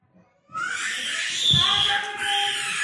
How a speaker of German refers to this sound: Jetzt, äh, du hörst dieses Kind jetzt schreien.